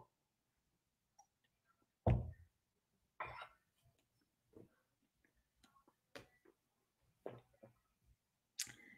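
Quiet mouth sounds of someone sipping a mouthful of water and chewing it before swallowing: a fuller wet slurp early on, then scattered soft squishes and clicks separated by short silences, with no talking.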